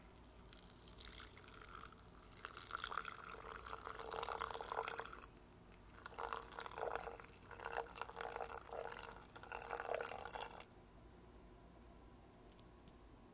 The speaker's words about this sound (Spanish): Vamos a vertir el agua caliente de manera circular, solo un poco.